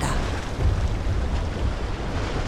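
Steady rushing wind over choppy sea water, about two kilometres from the harbour of Athens, with waves splashing and churning in a dense, continuous roar that swells slightly midway. No voices are heard.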